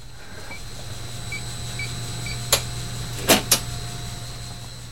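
A massive HVAC system in the attic of the Gardner Museum drones with a steady low hum and faint constant high-pitched whines, broken by three short hissing bursts partway through. It keeps the floors below at the right temperature and humidity. No one speaks.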